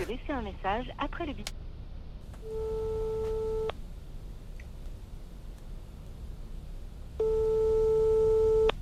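phone call ringing tone

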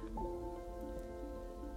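rain falling

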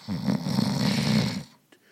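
loud snoring

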